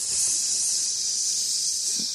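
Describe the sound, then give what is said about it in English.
The ground sizzles with a steady, bright hiss that fills the whole stretch, constant and fairly loud, with only faint low rustles beneath it and no voices. “Uh, the ground is literally sizzling.”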